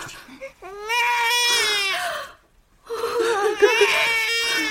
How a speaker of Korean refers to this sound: 어, 여보, 애기 좀 봐. 어, 어. 아가야. 아빠야, 아빠. 울지 마. 왜 울어? 아, 근데 왜 울죠? 친엄마 찾는 건가요? 아, 어색해서 그래요. 익숙해지면 괜찮을 겁니다.